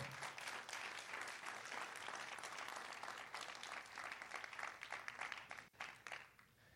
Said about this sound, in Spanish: Vamos a dar un aplauso fuerte a él.